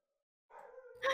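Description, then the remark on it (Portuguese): The speaker's own dog gives a drawn-out whining howl, then breaks into a single loud, sharp bark at the end, with no one talking. “É meu cachorro.”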